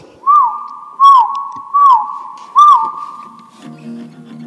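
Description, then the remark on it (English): A person whistles four clear, evenly spaced notes at a similar pitch, each swelling briefly and then holding, with no talking. A low hum lingers faintly at the end. “In four whistles.”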